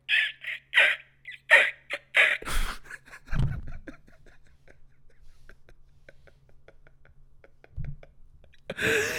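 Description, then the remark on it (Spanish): A voice imitates harsh dinosaur cries, several loud squawking calls in quick succession, followed by quieter breathy clicks and a final screech at the end. “Esos son los dinosaurios.”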